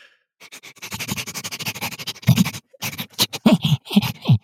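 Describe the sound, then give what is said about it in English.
A person imitates a tanuki with rapid, breathy sniffing and snuffling noises in quick irregular bursts, with a few throaty grunts near the end. “every so often I show up uh, to give the sound effects as a tanuki or a demon or something like that.”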